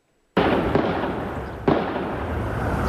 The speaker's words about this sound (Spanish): Este video captó el momento del tiroteo. Se escuchó a la policía gritando que había un tirador activo. Según las autoridades, el tiroteo inició alrededor de las ocho y media de la mañana dentro del Old National Bank en Louisville.